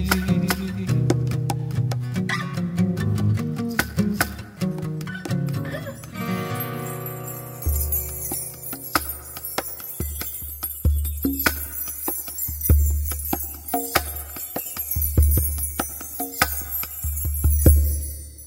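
A man sings a Christian worship song about the hope of the soon return of Jesus Christ over full instrumental backing; the opening is sustained and melodic, then a steady bass and percussive beat drive the rest at a moderate, even volume.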